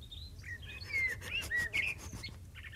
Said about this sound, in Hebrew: תראי, ת, תראי, תראי איזה ציפורים נחמדות.